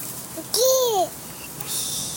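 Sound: baby babbling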